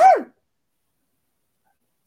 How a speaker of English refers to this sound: I'm going to sneeze again.